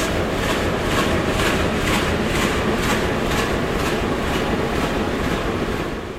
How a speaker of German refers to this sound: Wenn Sie an der rechten Seite stehen oder an der Fensterseite, da hören Sie, wie der Dieselmotor die Luft einatmet. Er braucht viel Luft und Sie hören auch das Blubbern des Auspuffs.